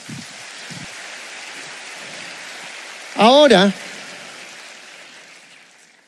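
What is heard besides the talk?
audience applause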